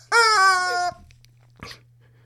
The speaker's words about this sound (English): Charlie Chicken, would you knock it off? Charlie Chicken! Knock it off, buddy! I can't take this chicken with me anywhere. All right, Charlie Chicken, off you go.